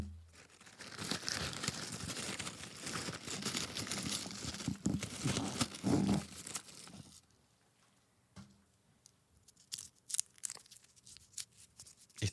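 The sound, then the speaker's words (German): Close, dense rustling and rummaging, like hands digging through crinkly material, as a person rummages in front of the microphone, fills the first seven seconds, then gives way to scattered, sparser crackles and handling noises. “Ich habe geraschelt. Raschel, raschel. Und ich wühle.”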